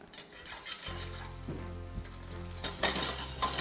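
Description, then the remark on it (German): Shallots sizzle steadily in hot oil in a pan, the oil in which basil was just fried, a continuous crackling hiss with a low hum beneath and a brief scrape or stir near the end. No one speaks. “Und dann Schalotte innen.”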